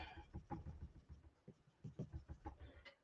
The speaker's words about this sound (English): And the colored pencils work great on the Yupo paper. It feels wonderful. In fact, it's easier. it feels softer. Like, you know how sometimes colored pencil, it just feels like it's a lot, but this I actually like quite a bit.